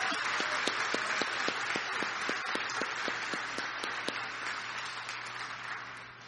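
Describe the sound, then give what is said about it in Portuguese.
A round of applause from many hands in a church, for the women of the Mulheres Cristãs em Ação group, a dense steady clatter with one sharper clap beating out a quick even rhythm, easing slightly toward the end. No one speaks. “E eu quero uma salva de palmas para as nossas mulheres heroínas.”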